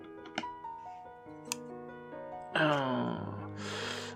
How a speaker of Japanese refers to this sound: そうするとまたプラスチックの束があるんで、ちょっとハサミで切って。